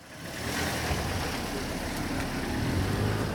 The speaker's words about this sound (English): In the East Jerusalem neighborhood of Shaya Monday, pedestrians slip into entryways to allow cars to pass in the narrow streets.